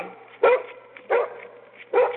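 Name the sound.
dogs barking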